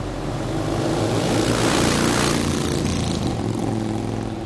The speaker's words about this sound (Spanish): ¿Se dan cuenta? Que mientras ustedes están acercando y ya llegando al amparo, muchas motos, motocicletas, pasan.